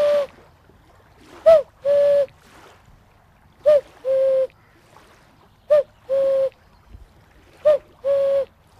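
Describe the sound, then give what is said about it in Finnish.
A cuckoo call blown on a wooden bird whistle, pitched at E-sharp, four clear two-note "cu-ckoo" pairs at a steady pace, each short high note dropping to a longer lower one, fairly loud. “Haluatteko te käkeä vähän Kyllä. kuunnella vielä?”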